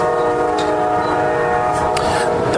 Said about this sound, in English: So they're kind of in a in a in a not nice building with a train right behind them.